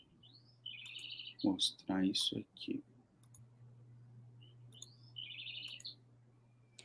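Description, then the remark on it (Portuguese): A bird sings in short, high warbling phrases, once early and again near the end, moderately clear over a steady low hum, with a person speaking briefly in between. “Estou ouvindo um barulhinho de pássaro cantando.”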